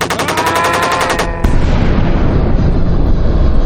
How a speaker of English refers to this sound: Ah, fuck! The chopper's down. Ah, fires everywhere.